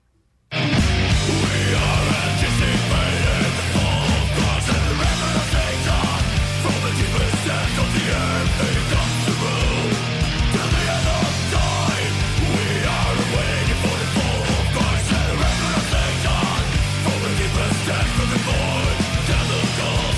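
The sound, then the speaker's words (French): A burst of raw, loud punk-sounding rock by a Polish band, with dense distorted guitars and pounding drums, playing continuously at full volume after a brief silent start. “Ça donne, juste le goût de se péter une pabstiette dans le front puis de foncer d'une baston.”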